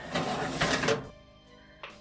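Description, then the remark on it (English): The second drawer on the left slides open with a rough, rattling scrape lasting about a second, then a faint metallic ring lingers and fades before a small knock at the end. “Uh, she said, second drawer on the left.”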